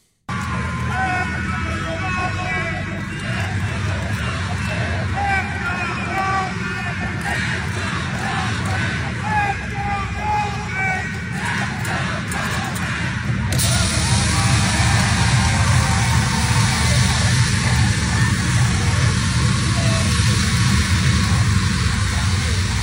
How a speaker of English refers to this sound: Why not get Channing Crowder, a man of many talents, to come out and lead the capacity crowd in a Let's Go Dolphins chant?